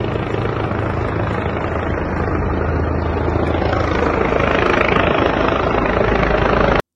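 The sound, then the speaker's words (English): A helicopter flies overhead above UNLV in Las Vegas, its steady, heavy rotor thrum and engine roar loud and continuous, swelling slightly before cutting off abruptly at the end. “Got the got the bird in the sky.”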